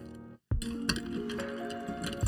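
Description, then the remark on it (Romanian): Two or three Ice Division ice cubes clink and rattle against a glass as a rum and Angostura drink is stirred, a steady run of bright ticks with faint glassy ringing after a brief silent gap at the start. “După care începem iar să amestecăm.”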